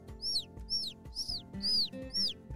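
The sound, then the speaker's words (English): Baby birds chirp outside in a steady series of five high, sweeping peeps, roughly twice a second, fairly clear over a low background rumble. “And the baby birds are chirping outside.”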